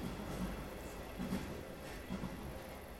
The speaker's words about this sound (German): Wir warten mal den Zug ab.